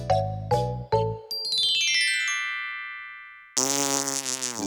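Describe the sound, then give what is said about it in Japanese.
Cartoonish fart sound effects: three quick low blasts, a long whistling glide with ringing tones, then a loud, sustained buzzy raspberry that runs to the end. No voices. “秘密兵器は臭いおなら”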